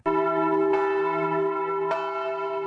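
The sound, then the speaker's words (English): A large church bell, its clapper swung by a ringer, rings loudly, struck three times at uneven intervals, each deep, resonant toll overlapping the long hum of the one before. No voices are heard. “And when that thing finally hit the bell, my whole world was shaking.”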